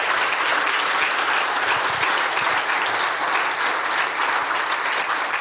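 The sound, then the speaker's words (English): Sustained applause from an audience at Community Gospel, thanking an intern who has finished his internship for his work, a dense, steady clatter of many hands clapping at even loudness with no voices rising above it. “If you would just thank him for all the work that he's been doing.”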